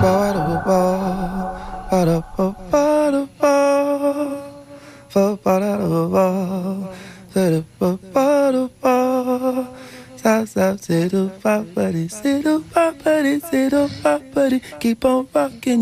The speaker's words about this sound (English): What a legend. Legends of hip hop right there. I mean, wow. Two of the greatest lyricists of all time.